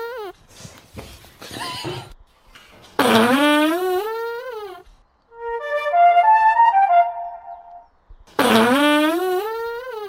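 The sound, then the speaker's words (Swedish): A long, drawn-out fart with a wavering, buzzy pitch lasts several seconds, loud. Shrill horse-like whinnies come just before and after it. “För det är så här, den är från början är så här så här, kan ju fisa låta ibland.”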